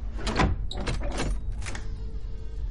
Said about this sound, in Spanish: Una mujer abre un ventanuco y mira a Vanessa. Cierra. Abre y mira.